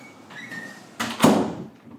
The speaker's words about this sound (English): Analia, close that door, please. Yeah, close the door. Close the door, please.